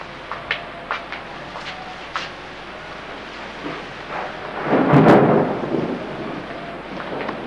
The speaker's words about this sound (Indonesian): Pukul 14.00 TPS ditutup dan hujan semakin deras disertai petir.